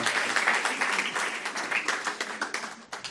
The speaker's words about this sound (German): Großen Applaus einfach der Wertschätzung und der Ermutigung.